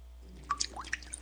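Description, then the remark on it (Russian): Water drips in a quick, irregular run of four or five small plinking drops, each with a short rising ping, soft with nothing else around. “Вода. Жидкость без цвета, запаха и вкуса.”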